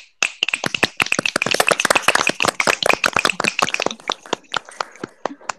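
An audience breaks into loud, dense applause, a rapid crackle of many hands clapping that gradually thins out into a few scattered claps by the end. No one speaks.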